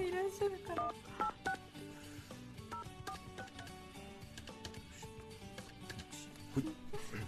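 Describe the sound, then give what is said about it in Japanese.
A rapid run of telephone keypad dialing tones as someone dials a phone number to make a call, many short beeps in quick succession at an uneven pace, clear over a faint busy background. “ちょっと電話番号書いてありますから電話してみましょうか”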